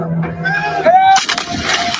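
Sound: artillery bombardment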